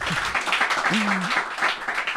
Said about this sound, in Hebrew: אתם יכולים למחוא כפיים, זה בסדר גמור.